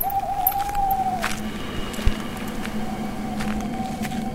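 An owl hoots in the woods on a pitch-dark night, a long, steady mid-pitched call that dips and then holds over a hissy, rustling background. A single sharp click sounds partway through, and no one speaks.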